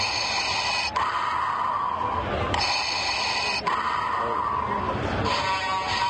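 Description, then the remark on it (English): Mechanical respirator breathing plays from a sound-effect bottle opener: loud hissing inhales and exhales repeating in a steady rhythm over a tinny, buzzing background, with no one talking. “his famous breathing.”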